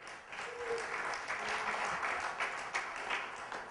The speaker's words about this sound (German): Jetzt sollten die Männer einen riesen Applaus machen hier. Versteht ihr?